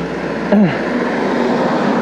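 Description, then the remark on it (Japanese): Steady, dense roar of traffic passing outside, with a brief rising-and-falling whine around the midpoint. No one speaks over it. “結構ねこうやってわーっと車が通ってるので”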